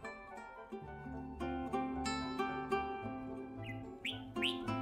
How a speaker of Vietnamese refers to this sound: mấy con trà mào vẫn hót líu lo không ngừng cảnh tượng đó cũng chính thức khép lại tiếng chim trong vườn dưa.